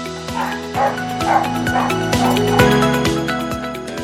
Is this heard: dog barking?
yes